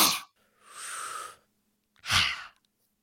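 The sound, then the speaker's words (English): A hissing breath drawn in through the mouth with pursed lips as part of a breathing exercise, lasting under a second, bracketed by short breathy puffs and followed by a heavier exhale; no one speaks. “So you breathe in through your mouth like this like you're breathing in through a boba straw, and then.”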